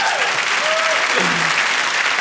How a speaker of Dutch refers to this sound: Applaus, applaus.